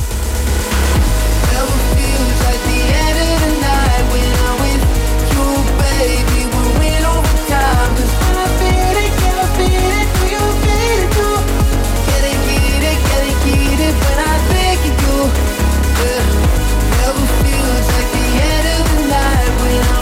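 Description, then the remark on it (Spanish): A loud, continuous music track with a driving, thumping bass beat and layered melodic lines on top, playing steadily throughout with no one talking. “producción de … suena así de potente”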